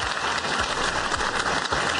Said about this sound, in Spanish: En Neiva tenemos una audiencia. Oiga, la audiencia de Neiva nuestra. Venga, bóteme un aplauso a nuestra audiencia en Neiva porque está espectacular. Gracias, Neiva.